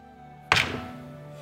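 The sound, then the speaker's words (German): A single solid thunk of a die rolled onto a wooden table for a performance check, with a short decaying rattle afterward over a faint steady background hum; the roll comes up 17. “seht dort einen äh, Würfel mal auf Auftreten.”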